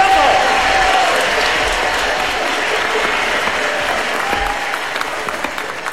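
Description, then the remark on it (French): An audience applauds the first contestants of a dance contest, a dense wash of many hands clapping at an even loudness throughout, with a faint whistle-like tone briefly rising above it near the start. “Voici nos premiers concurrents, les applaudit”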